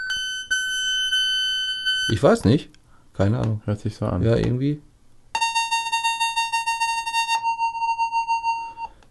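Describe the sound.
A steady synthesized tone rich in evenly spaced harmonics, from a wave generator app on an iPad, sounds, pauses while people talk briefly, then returns at a different pitch and keeps droning in a pulsing rhythm.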